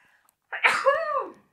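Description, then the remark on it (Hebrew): A single sharp, loud sneeze, with a quick forceful burst followed by a brief trailing exhale; no talking during it. “לבריאות.”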